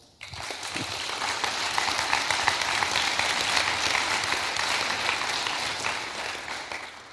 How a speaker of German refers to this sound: Wir heißen dich herzlich willkommen mit einem Applaus.